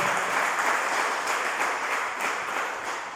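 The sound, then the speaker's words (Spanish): An audience applauding for the Lord, a dense wash of many hands clapping together at once, steady and full for a few seconds and tapering slightly toward the end, with no one speaking over it. “Denle el aplauso al Señor, por favor.”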